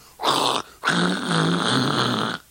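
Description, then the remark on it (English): A person vocally imitates how a bass part sounds to someone with Meniere's disease: a harsh, distorted buzzing drone in two bursts, a short one followed by a longer sustained rasp. It is fairly loud, with a gritty, growl-like texture. “Probably not, because a bass part, which would normally sound like boom, boom, boom, boom, boom, to me sounds like”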